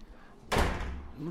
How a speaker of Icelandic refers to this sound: skellur alltaf þessi hurð